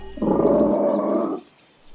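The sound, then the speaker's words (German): A deep, rough growl of a bear rumbles loudly for about a second, sustained and gravelly, then cuts off into quiet, with no voices over it. “Den Bären.”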